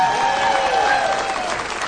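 An audience applauds steadily and loudly for a band's lead guitarist as the band members are introduced: a dense wash of many hands clapping with no pauses, while a faint sustained tone lingers underneath.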